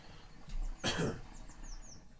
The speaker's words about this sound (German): Corona-Huster.